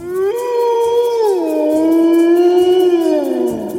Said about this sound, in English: It sat down on its haunches, lifted its muzzle with open jaws, and gave vent to a subdued and long drawn howl.